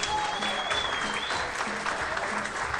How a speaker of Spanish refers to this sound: El aplauso del público presente.